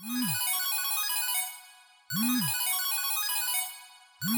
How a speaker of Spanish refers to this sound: Oye, tu teléfono inteligente con cámara está sonando.